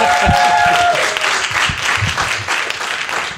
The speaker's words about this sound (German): Und wir sind heute in Nürnberg im Afterwork yes. und haben heute mal, jawohl, da kann man einen dicken Applaus geben. Es geht auch ein bisschen lauter. Jawohl.